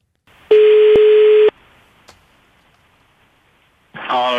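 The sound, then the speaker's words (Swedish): A single one-second burst of a steady telephone ringback tone on an outgoing call, clear and fairly loud, followed by a quiet pause before a voice begins to answer. “Göteborgare är generellt sett väldigt svåra att lura, men jag tror att det här kan funka. Vi ringer.”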